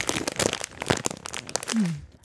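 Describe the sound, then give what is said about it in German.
Plastic packaging of gingerbread hearts with apricot filling crinkles and crackles in a dense burst of sharp, irregular rustles, handled for about two seconds before trailing off with a short low squeak. “eine Packung Klopapier. Nein, Lebkuchenherzen mit Aprikosenfüllung.”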